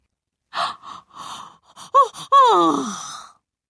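A person yawns: a few breathy puffs and short voiced catches, then a long, drawn-out voiced yawn that slides downward in pitch and trails off, fairly loud and alone.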